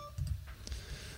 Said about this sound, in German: Und das ist das Telefon, was hier klingelt. Und ich mache mal kurz eine Pause.